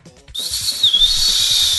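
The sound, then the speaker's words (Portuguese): A referee's whistle clogged with grass is blown before a penalty kick in one long, breathy blast, its shrill tone wavering and half-choked by a rushing hiss as it sputters instead of ringing cleanly. It sounds fairly loud. “Ih, cara, o apito, o apito falhou, calma aí. Entrou grama dentro do apito.”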